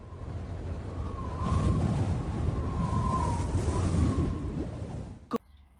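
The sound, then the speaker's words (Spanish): Strong wind roars steadily in broad, rushing gusts, with a faint wavering whistle riding over it, then cuts off abruptly near the end. No one speaks. “Sonido de viento fuerte.”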